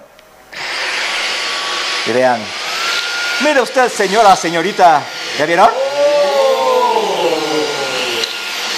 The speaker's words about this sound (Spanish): Entonces ahora sí vamos a ver, vamos a encender la aspiradora.